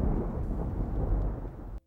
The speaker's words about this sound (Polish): Zostawię was z tymi gromami, z tymi błyskawicami, z tą ulewą, która spada na nas kroplami deszczu.